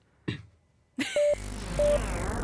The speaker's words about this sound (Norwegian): jeg prøvde ikke å si noe med kremter. Jeg hadde faktisk noe i halsen.